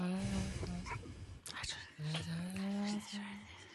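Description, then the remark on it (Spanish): Eerie whispering mixed with low, drawn-out breathy voices, fairly loud, with a brief sharp noise midway before the murmuring resumes in long sustained tones. “Oigo respiraciones. Susurros.”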